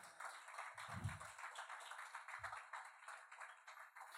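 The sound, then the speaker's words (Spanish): An audience at a Spanish-language church service applauds together for the Lord, a steady wash of many hands clapping, soft, with a couple of brief low thumps mixed in. “Den un aplauso, Señor, aunque sea.”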